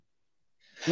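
A single sneeze after a moment of silence: a breathy intake swells into a loud, voiced burst that is cut off abruptly at the end.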